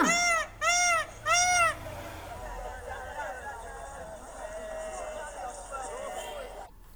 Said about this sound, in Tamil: அடுத்ததாக நம்முடைய தேசிய பறவையான மயில் எழுப்பும் ஒளி மயில் எழுப்பக்கூடிய ஒலிக்கு மயில் அகவும் அப்படின்னு சொல்லணும் மயில் அகவும் ஒளியை கேட்கலாமா